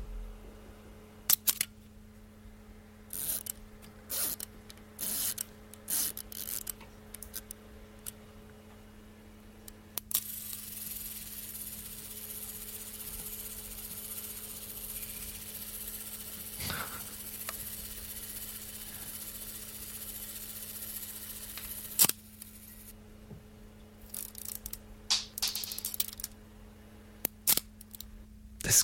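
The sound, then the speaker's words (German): Mechanical clicks and ratcheting as the clockwork of a vintage SLR camera is wound for the self-timer and long exposure; the release button is pressed and the clockwork runs down, buzzing steadily through a 13-second self-timer before the shutter snaps, followed by more winding clicks. “Aufdrehen des Uhrwerks für Zeitauslöser und Langzeitbelichtung. Mhm. Betätigen des Auslöseknopfes, dann Ablaufen des Uhrwerks, 13 Sekunden Zeitauslöser.”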